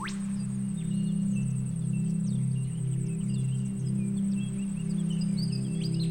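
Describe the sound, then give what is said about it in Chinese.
Scattered short bird chirps and calls sound intermittently over a steady low droning hum and a continuous thin high-pitched whine, with no voices present. “听，还有真正的鸟叫声，仿佛在欢迎我们的到来。”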